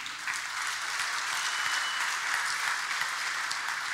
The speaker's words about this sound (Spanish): Dale un buen aplauso al rey, vamos.